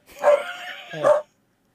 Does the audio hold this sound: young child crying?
no